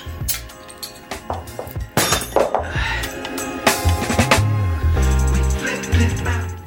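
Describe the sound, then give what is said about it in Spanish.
A bottle of Calaca Mexican beer being opened, heard as a run of sharp glassy clinks and clattering knocks spread over several seconds, with a low steady hum underneath and no talking. “Pues me voy a abrir una calaca de estas.”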